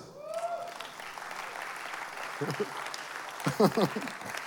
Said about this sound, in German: Applaus.